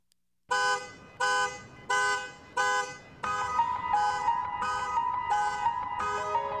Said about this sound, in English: This keyboard player may have done the impossible. He made a car alarm almost listenable by composing a beautiful song to play over in the incessant honking.